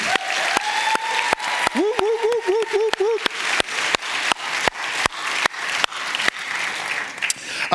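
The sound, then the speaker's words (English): An audience breaks into loud, sustained applause for its pastors and leaders, dense clapping filling the whole stretch, with a rising, wavering cheer or whoop from someone in the crowd partway through. “In fact, if I could, uh, all of you, would you just give a huge round of applause to our pastors and our leaders?”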